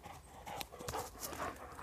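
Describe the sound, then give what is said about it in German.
A dog pants as it approaches, in quick, rhythmic breathy huffs, steady and moderately loud throughout, with light scuffling mixed in and no talking. “Oh, da kommt der Hund.”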